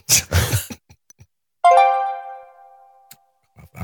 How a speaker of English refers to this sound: That's Gav getting an email. That was because I was on airplane mode.